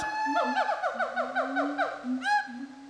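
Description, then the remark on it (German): Gibbon calls recorded at a zoo in Indonesia: a fast, rhythmic run of rising and falling hooting notes, followed by a higher swooping whoop, loud and fairly close, with other calls sounding faintly in the background. “Ich hab's ja schon gesagt, zuerst war ich in einem Tierpark, um mal ganz nah an die Affen ranzukommen und sie zu hören.”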